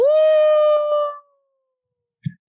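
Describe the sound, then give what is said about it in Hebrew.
A person imitates a wolf howl, heard in a retelling of a Harry Potter scene, with one loud, drawn-out tone that rises quickly and holds steady for about a second, then fades. After a pause comes a brief low thump. “הארי שומע יללה, ענקה.”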